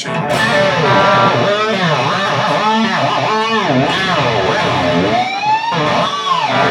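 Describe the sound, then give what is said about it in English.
Electric guitar harmonics bent hard with the tremolo arm, ringing tones swooping up and down in pitch in repeated waves, loud and continuous, with a slightly distorted edge and no talking. “And this is where we can use the trem quite violently this time.”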